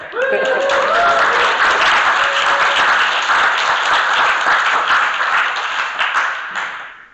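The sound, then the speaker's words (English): An audience bursts into loud, sustained applause with cheering and whoops rising over it, a dense wash of clapping that holds steady for several seconds before slowly tapering off. “now you can cheer.”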